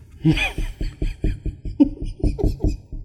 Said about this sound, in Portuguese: Nossa, a sua barriga tá batendo na mesa, é isso? Nossa. é grande, né? Ah. É porque tava junto com a sua risada, tava tuc, tuc